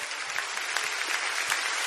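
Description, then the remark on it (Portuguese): An audience at a worship service applauds the Lord steadily, a dense wash of many hands clapping at once, even in loudness with scattered sharper claps standing out, no voices on top. “Você pode aplaudir ao Senhor.”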